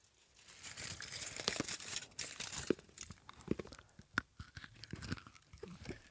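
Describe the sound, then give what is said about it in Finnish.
Munching Rainbow crisp chocolate right against the microphone, with loud irregular crackling bites and wet chewing, no talking. “se mussutuksen ääni tähän mikkiin oli mun mielestä niin herkullinen.”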